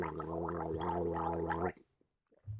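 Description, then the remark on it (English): A person gargles water loudly for nearly two seconds, a steady bubbling rattle, then stops; a brief low gurgle follows after a short pause, imitating the bubbling of a gravity bong. “Wait, that's not a gravity bong noise. A gravity bong will bubble. Like, let's gargle.”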